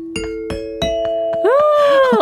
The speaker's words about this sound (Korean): 실로폰 딩동댕동 쳐주는 거예요. 어, 네. 퀴즈 시작하기 전에 한 번만. 쳐볼까요? 네.